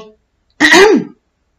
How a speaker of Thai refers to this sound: …กระแอมเบาๆ